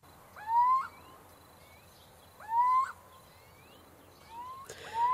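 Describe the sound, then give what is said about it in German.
A little owl, a small owl species about 22 cm tall and about 200 g, calls three times, each a rising, slightly nasal whistled note spaced about two seconds apart, fairly clear against a soft outdoor hiss with no voices. “Um den Steinkauz, der blühte zum ersten Mal wieder in der Nordwestschweiz.”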